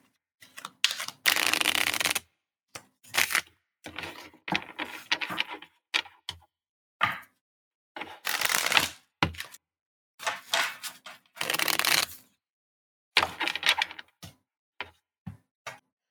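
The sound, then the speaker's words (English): Tarot cards the size of playing cards being shuffled in an otherwise quiet setting: several papery riffling bursts, each a second or two long, separated by soft taps and clicks as the deck is squared and handled. “the size of playing cards, which just makes it so easy to shuffle”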